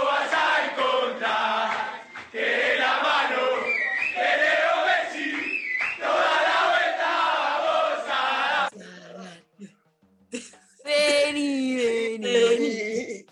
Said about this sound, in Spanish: Vamos a escuchar un poquito de los festejos de la selección.